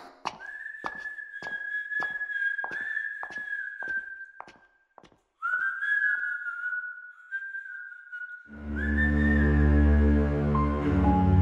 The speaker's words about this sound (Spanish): La primera fue con un paciente que tuvo que ser internado en la clínica La Paz. Lo último que supe es que aún no ha recuperado la conciencia. El pobre anda deambulando por los pasillos y silbando.